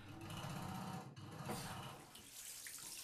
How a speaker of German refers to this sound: Wie sie sich ein Bad einlässt